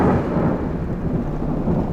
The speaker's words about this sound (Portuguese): Toda vez que esse barulho de chuva, de trovões começa,